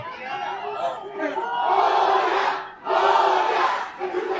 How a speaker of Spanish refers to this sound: porque estuvieron gritando portera, portera, ahorita que Tigres paró un, tiro